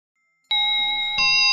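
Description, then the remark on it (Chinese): A school bell chime rings out to mark the start of class after a moment of silence, two bright, bell-like tones struck in succession, each ringing on with a clear, sustained shimmer. No one speaks. “上课钟声响起，老师走进教室，旁边跟着一个新同学。”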